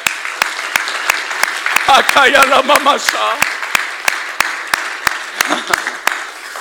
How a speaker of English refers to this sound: If you believe that, clap your hands.